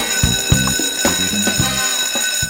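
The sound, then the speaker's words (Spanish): A school bell rings continuously and loudly in a classroom at the Academia de Emprendedores at Aden, its bright metallic tone clattering in a rapid, steady rhythm with no voices present. “Suena el timbre en la sala de clases y eso significa que estamos de regresos aquí en la Academia de Emprendedores en Aden”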